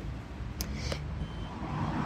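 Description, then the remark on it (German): A few short electronic beeps from a video-monitored fishing bait vending machine in Kiel chirp over a steady rumble of street traffic, with a couple of quick clicks between them. “Es piepst, es dreht, es drödelt und es heißt, dass es hier leckere Sachen für den Fisch gibt.”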